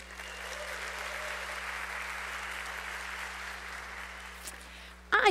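Steady audience applause at the end of a lecture, a dense wash of many hands clapping at an even level for several seconds, ending with a sudden louder burst at the very end.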